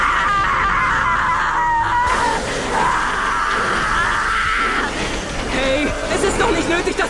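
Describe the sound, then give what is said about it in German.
A titan lets out a loud, drawn-out scream of pain with strained, wavering pitch as its body is touched in tests of its pain sensitivity, followed by groaning and further anguished cries, raw, with no clear speech. “Das kann man doch nicht aushalten, ohne zu schreien.”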